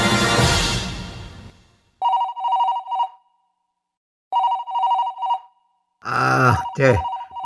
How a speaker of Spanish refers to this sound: A cada rato me molestan con el famoso teléfono.